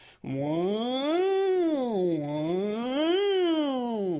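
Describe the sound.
A voice imitates a faster type of siren with a sustained wailing tone that steadily rises and falls, sweeping through about two full cycles. It is loud and continuous, with no other sounds.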